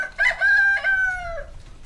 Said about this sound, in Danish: Men nu skal vi altså se at komme i gang, for hanen har galet, og der er masser, vi skal nå